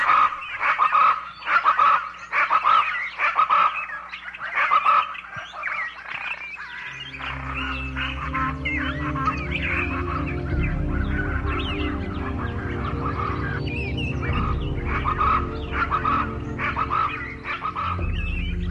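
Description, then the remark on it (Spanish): A pájaro brujo bird, sitting on a branch, sings in a rapid run of repeated, loud, honking calls. After a few seconds a low, steady drone rises beneath it and continues as the calls carry on. “Y sentado sobre una rama, cantaba así.”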